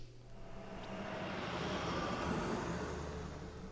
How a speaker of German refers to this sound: Ich steige in den Bus.